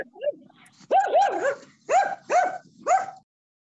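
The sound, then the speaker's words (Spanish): A dog barks in a quick series of about six or seven sharp, slightly yelping barks, clear, with short pauses between bursts and no talking over them. “Eh, no, sé el perro qué es lo que está queriendo decir, pero cierto.”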